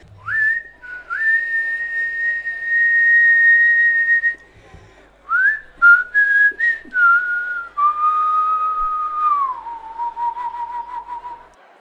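A slow, jazzy melody, a jazz standard, is whistled clearly, with long held notes, sliding pitch bends and a brief pause midway, ending on a wavering sustained tone.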